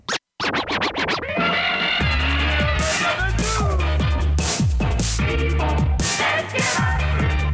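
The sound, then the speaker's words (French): Rapid DJ turntable scratches slice back and forth over a steady beat, loud, with fast repeated rhythmic bursts and pitch swoops throughout, used as a noon time cue on CIBL radio; no one speaks. “Au son du scratch, il sera très approximativement midi.”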